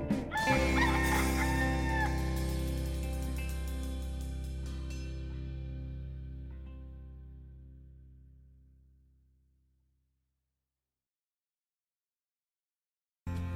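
A rooster crows loudly near the start, layered over a sustained musical chord that slowly fades to silence over about ten seconds.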